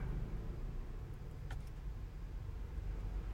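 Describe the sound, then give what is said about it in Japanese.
A steady low rumble of a car engine heard from inside the vehicle, with one person alone in the car, continuous and fairly quiet, with a brief faint click or tick partway through and no talking. “特に今車の中1人ですから誰も話しかけてきてないし、まあ、他の車の音とか聞こえますけど”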